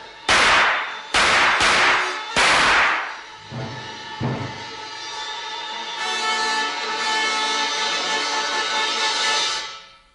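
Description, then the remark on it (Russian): Four loud, sharp gunshots crack in quick succession, followed by two duller thuds, then a sustained, ringing wash of sound that fades out. No one speaks. Gunfire in a Sherlock Holmes radio drama, as Watson shoots at the giant hound attacking Sir Henry. “Стреляйте, Ватсон, стреляйте!”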